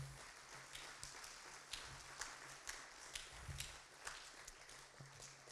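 An audience applauds steadily for several seconds for a man who has just led a prayer, a dense wash of many hands clapping with a few sharper individual claps popping out, fairly loud and sustained with no one talking.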